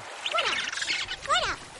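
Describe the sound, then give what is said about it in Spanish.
Two birds give harsh, nasal squawks as they harass a baby turtle on a beach, two rising-and-falling cries with a short gap between them, over a faint hissy background and no talking. “Dos pájaros la acosan.”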